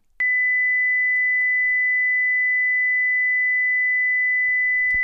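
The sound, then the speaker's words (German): A steady, piercing high-pitched sine tone switches on abruptly and holds unchanged for about five seconds, mimicking the constant ringing of tinnitus, with no voices present. “Und jetzt nutze ich mal ein paar Sekunden in diesem Podcast, um dieses Gefühl rüberzubringen.”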